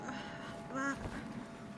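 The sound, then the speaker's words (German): Poultry stir in a henhouse at night while a storm rages outside, with a single short, nasal quack-like call rising over a low, steady rustling background. “Und während die große Standuhr acht schlägt, draußen ein fürchterlicher Sturm tobt, rührt sich etwas im Hühnerstall.”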